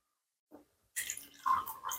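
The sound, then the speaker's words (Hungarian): Water is poured into a glass: a short click, then a steady, bright splashing pour lasting about a second, with no one talking. “ah, jó, vagy vizet, vagy Egy, egy icipicit ebből kérek szépen.”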